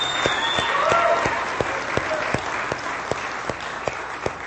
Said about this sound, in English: I want you guys to know we have one of the great young preachers in America right in our midst. Give him a big hand.